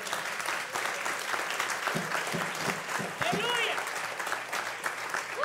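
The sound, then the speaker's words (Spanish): An audience claps steadily, a dense wash of applause lasting several seconds at an even volume, with a few raised voices and cheers mixed in over the clapping. “Si usted le va a dar un aplauso.”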